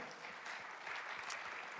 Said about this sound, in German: Also merkst du, ja, vielen Dank, Applaus.